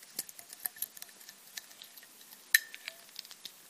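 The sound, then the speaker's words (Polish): A corkscrew twisting into the cork of a bottle of Viognier regional wine from Condrieu by producer Ogier, with a steady run of small creaks and metallic clicks and one sharper squeak partway through. No voices. “To jest odgłos otwierania butelki.”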